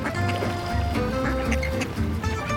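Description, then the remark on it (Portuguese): A pet duck named Bananinha quacks repeatedly, fairly loud, while water splashes and sloshes around it the whole time, at a home with no lake or pool. “Aqui não tem lago nem piscina, mas o pato é esperto.”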